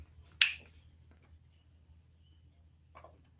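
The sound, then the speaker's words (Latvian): A vape's airflow ring is twisted fully shut with one sharp click, followed a few seconds later by a fainter tick, with no talking over a quiet low hum. “Galīgi ciet aizgriežam.”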